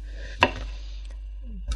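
A knife chops a head of produce into cubes that are not too thick on a board, with two sharp, crisp strikes, one early and one at the very end, separated by a quiet stretch with a faint low hum.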